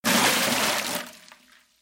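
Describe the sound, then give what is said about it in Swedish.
A scrub bucket of dirty brown water is dumped out in one quick, loud splashing rush that fades away within a couple of seconds. No voices are heard. “När även det löpande bandet och maskinerna var rengjorda och skurhinkens bruna vatten vatten blivit tömt”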